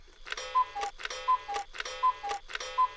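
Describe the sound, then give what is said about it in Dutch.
A clock ticks in a steady, even tick-tock rhythm, each beat a bright click with a faint ringing tone, repeating about four times, clear with no voices. “Het is allemaal rust en regelmaat wat de klok slaat.”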